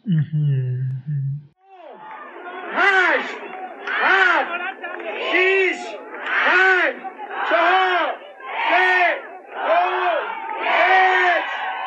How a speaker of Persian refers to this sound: این صداهایی که دارید توی زمینه میشنوید مربوط به رقابت خانوم ها رقابت سی کیلومتری خانوم ها توی جیوپارک تریل قشم